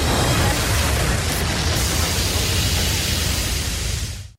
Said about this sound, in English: flames, flame sound effects there, Melissa. nothing like a light flambe to get a podcast started.